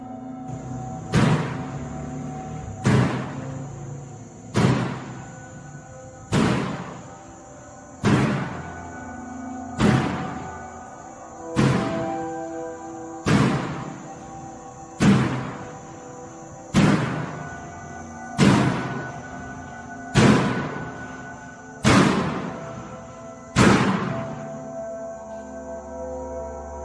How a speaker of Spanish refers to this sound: Cuando los policías se adentran cada vez más al lugar, se les puede notar el temor que sienten al caminar y estar más cerca de la puerta metálica, ya que es lo que producía los ruidos